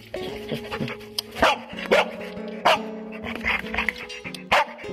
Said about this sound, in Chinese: 你刚刚听到这个声音，来自于一只黑色的拉布拉多犬，它叫子歇，正在一片废墟训练基地搜索着人类的踪迹。没错，子歇并不是一只普通的狗狗，它是中国第一只国际标准二 B 级搜救犬，也就是高级搜救犬。